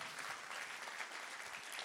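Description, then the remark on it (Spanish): An audience applauds for Jesus together, a dense, steady wash of many hands clapping at once, sustained and fairly full throughout with no voices standing out. “Vamos a darle un aplauso fuerte a Jesús.”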